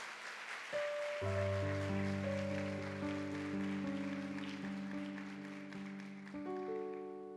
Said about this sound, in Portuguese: Então dê uma salva de palmas a Jesus para eu beber uma água.